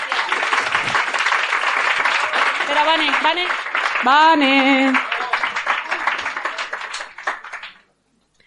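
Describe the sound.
A poetry slam audience applauds a poet after her scores are read out, steadily for about seven seconds, a dense wash of clapping that fades out at the end, with voices calling and cheering over it partway through.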